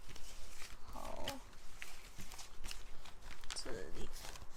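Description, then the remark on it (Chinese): A deck of tarot cards shuffled for a tarot reading in quick, irregular bursts of soft papery rustling and flicking, with a couple of brief murmured vocal sounds mixed in. “我先来洗牌，这边洗一下。”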